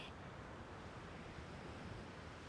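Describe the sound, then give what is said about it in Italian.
Ocean waves wash in a steady, low, soft rush, with no distinct breaks and no voices. “Sbircio di sotto e vedo l'oceano che arriva fino all'orizzonte.”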